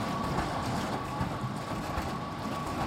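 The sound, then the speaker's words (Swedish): A small motor runs steadily as it stirs a fabric dye bath inside a machine, mixing the dye, giving a continuous low rumble with a thin, constant whine on top and no pauses. No one speaks. “Och nu har jag stängt maskinen och då har jag som en liten motor jag sätter på här äh. och så går den runt och blandas, blandar färgen.”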